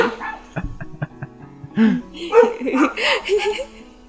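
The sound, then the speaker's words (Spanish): Dogs bark: a few short, sharp yips at first, then a denser, louder flurry of excited, high-pitched barks and yelps overlapping one another. “¿Quién sabe güey, qué están ladrando?”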